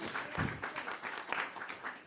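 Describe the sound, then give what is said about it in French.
An audience applauds the arriving president of Open Law, a dense, steady patter of many hands clapping with no one speaking over it. “On, peut spécialement applaudir la présidente d'Open Law”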